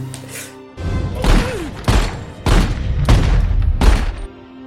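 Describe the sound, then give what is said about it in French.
A rapid volley of about five loud gunshots in a film scene, each a sharp, heavy blast with a short reverberant tail, fired by surprise in quick succession at a man guarding a door, over a few seconds. “Il va sortir, il va tirer 5 coups de feu sur le premier qui gardait la porte, mhm.”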